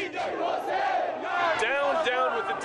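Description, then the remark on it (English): A large crowd of protesters in Iran, after the presidential election, shouts slogans in unison such as "We want freedom!", many voices blending into a loud, sustained chant that rises and falls steadily throughout, filling the space with dense, continuous noise. “That's what the protesters have been shouting.”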